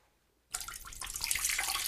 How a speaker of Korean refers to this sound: 중학생 때 학교에서 소변을 본 적이 있는데요. 친구들과 주르륵 서서 소변을 보는데